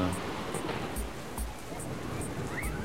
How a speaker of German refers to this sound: Schau, die Kinder freuen sich über den, den Regen. Das hat wahrscheinlich schon lange nicht mehr geregnet dort.